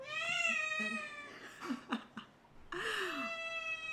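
A cat meows loudly nearby at home on 19 February 2022 while it is raining: two long, drawn-out, high-pitched meows with rich, wavering tones, separated by a brief pause filled with a few short chirpy sounds. No one speaks.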